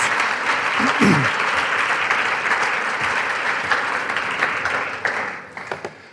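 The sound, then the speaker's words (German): Sustained audience applause welcoming a guest onto a show, a dense wash of many hands clapping at steady volume, with a brief voice or cheer early on, thinning into a few scattered claps at the end. “Geben wir ihm doch einen Applaus.”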